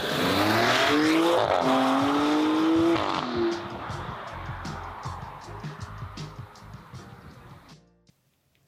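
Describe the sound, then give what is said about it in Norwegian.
The engine of a Maserati Grecale Trofeo SUV roars, its pitch climbing hard over a few seconds, then easing into a quieter, steady rumble as the car drives on with faint tire noise. “Ja, Maserati Grecala, altså sistemann ut i det heftigste eh, SUV-segmentet.”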